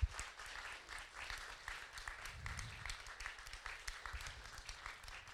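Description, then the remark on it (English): An audience claps their hands for the people who have come forward, in a steady, dense burst of applause that holds at an even level for several seconds, with no voices standing out over it. “Can we give a hand clap to these people that have come forward?”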